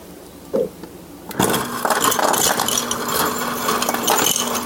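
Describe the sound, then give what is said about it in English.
After a brief quiet moment, ice cubes clatter and rattle as they are put into a couple of drinking glasses, a dense, continuous tumble for several seconds, over a steady low mechanical hum. “I'm going to get out a couple of glasses. I'm going to get some for for Tommy, Des's dad. I'm going to put some ice in a couple of them.”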